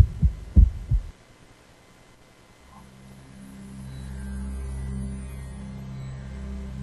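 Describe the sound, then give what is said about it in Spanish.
A few deep, booming heartbeat thumps in quick lub-dub pairs open the sound, then fall silent before a low, steady droning hum swells in and holds, as a station jingle for the radio Mente Libre of Grupo Arinfo de Radios. “Mente Libre, una radio con latido propio.”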